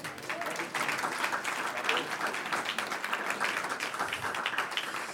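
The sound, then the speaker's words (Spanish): A crowd claps steadily for several seconds as applause to the Lord, a dense wash of clapping with faint voices mixed underneath. “Un aplauso al Señor.”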